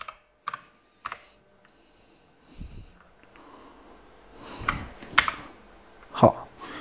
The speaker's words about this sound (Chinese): 因为我是单手打字，嗯，我这个打字比较慢。